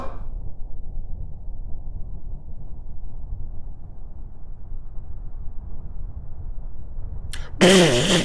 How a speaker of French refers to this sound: Ah, il a pété c'est incroyable Il est évident que je n'ai pas pété Si, si, c'est vrai Vous en avez lâché un et maintenant ça sent mauvais partout Oh, ça sent le caca